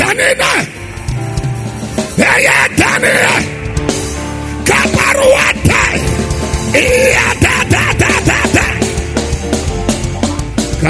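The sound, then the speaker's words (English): An audience yelling and shouting together in prayer and praise in a loud, sustained wave, with overlapping cries rising and falling and a strong leader's voice carrying over the din. “And if you are that deliverer, come on, scream like your voice is yours and pray.”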